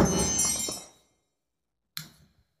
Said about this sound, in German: Da ist unser Handy jetzt runtergefallen, aber das kann ich ja wegschneiden.